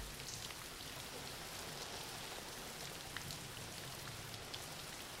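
Steady rain falls without pause, a soft, even hiss of drops spread across the whole clip, with a few slightly sharper patters now and then and no voices.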